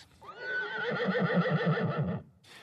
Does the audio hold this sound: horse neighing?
yes